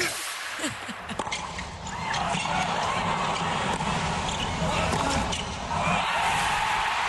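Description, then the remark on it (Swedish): A tennis match point at the US Open, as Kei Nishikori of Japan beats Serbian world number one Novak Djokovic in an upset to reach the final: a few sharp ball bounces, then a large stadium crowd bursts into a sustained roar of cheering and applause that swells again near the end. “Ah, så där lät det när Kenish Gora blev klar för final i tennisturneringen US Open genom en skrällseger över den serbiske världsettan Novak Djokovic.”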